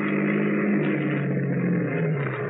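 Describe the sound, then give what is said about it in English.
A car pulls to a stop, its engine a steady low rumble with a continuous hum that fills the whole moment; no voices are heard. “Why are we stopping?”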